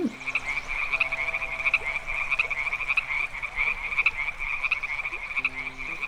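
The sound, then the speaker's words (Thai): A steady chorus of emerald-green frogs croaking in dense, overlapping pulses, fairly loud and continuous throughout, with a faint low hum underneath and no voices. “บนดาวแห่งนี้มีเพื่อนที่พึ่งพากันมาอย่างช้านาน คือเจ้าเต่ายักษ์และกบตัวเขียวมรกตทั้งสอง”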